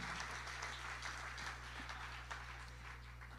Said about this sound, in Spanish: En el nombre de Jesús, si le va a dar un aplauso al Señor, déselo bien.